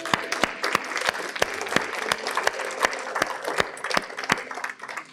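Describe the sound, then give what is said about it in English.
A crowd applauds steadily for about five seconds during a prayer, giving the Lord a hand clap: a dense wash of many hands clapping with a few sharp, louder claps popping out. Nobody speaks. “Lord, just give the Lord a hand clap.”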